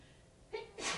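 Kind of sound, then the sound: human body sound, sneeze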